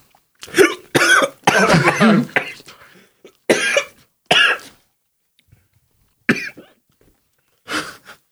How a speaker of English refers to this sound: Oh, I got the hiccups now. Wow, that was immediate.